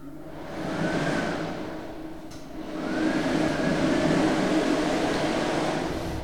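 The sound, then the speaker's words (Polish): A hair dryer roars in a bathroom with a steady, breathy whoosh, its motor whine rising in pitch twice as the airflow surges, with no voices present. “Mogę włączyć suszarkę.”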